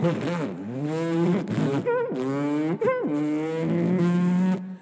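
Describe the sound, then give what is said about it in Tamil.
A person imitates a car with their voice, mimicking the James Bond car chase, producing a continuous, loud droning engine hum that rises and falls in pitch with several revving swoops over about five seconds, and no words spoken. “முக்கியமாக அந்த theme music எல்லா ஸ்டேஜ்லேயும் நான் மெமிக்ரி பண்ணியிருக்கேன் அந்த கார் சேஸோட எப்படின்னா அப்புறம் கார் வரும்”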